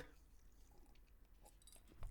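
Someone drinks water, with quiet wet sipping and gulping sounds and a few small clicks against a low background hum, no talking.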